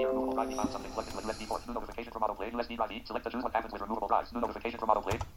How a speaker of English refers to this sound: As you heard, the notification came up on my computer, which means it sees the speaker.